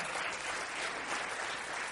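An audience applauds its hosts: a steady, dense wash of many hands clapping at once that holds an even level for the full two seconds, with no voices rising above it.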